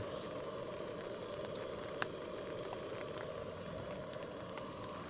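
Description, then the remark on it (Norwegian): Rain patters steadily on a taut tent tarp overhead, a dense crackle with occasional sharper drops ticking through, continuous and even throughout with no voices. “Men litt ekstra koselig når man hører det knitre litt over eh, teltduken her.”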